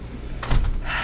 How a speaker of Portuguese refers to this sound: Fecharam a porta aí, ó.